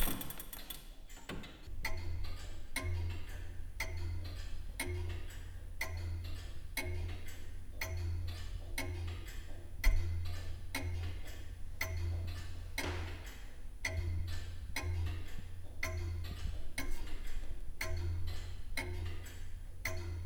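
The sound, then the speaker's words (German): An antique longcase clock from 1760 ticks steadily and evenly at about one beat per second, distinct, with a low droning hum underneath and no voices; its ticking reveals a problem with its energy. “Ein geübtes Ohr wie das der Uhrmachermeisterin kann aber schon am Ticken erkennen, wie es der Uhr geht, wie bei dieser Bodenstanduhr von 1760.”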